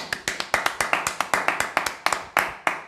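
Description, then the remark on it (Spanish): A single person claps steadily, about twenty sharp, crisp claps in quick, even succession at a moderate volume, with no voices. “te brindo un aplauso, te brindo un fuerte, a, un fuerte abrazo, perdón que venga primero el aplauso.”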